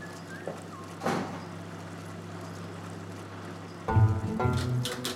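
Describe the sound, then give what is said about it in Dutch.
Over the steady hum of a dough-kneading machine in a bakery, a door at the back of the bakery is eased open slowly near the end, with a low creak and rumble after a brief soft bump earlier on. “Aan de achterkant van de bakkerij gaat voorzichtig een deur open.”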